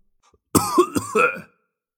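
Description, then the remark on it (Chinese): An old museum curator coughs twice in quick succession, two rough, raspy bursts with a throaty, drawn-out tail, heard alone with no talking. “老馆长咳嗽了两声。”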